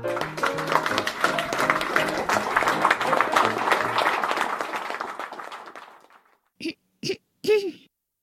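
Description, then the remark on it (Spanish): A crowd applauds loudly for about six seconds for Miss Smurfette, about to sing "Jesus Loves Me" on stage, with a tonal hum running under the clapping. The applause fades out, followed by three short cough-like throat-clearing bursts. “Favor de dar un caluroso aplauso a la señorita Pitufa.”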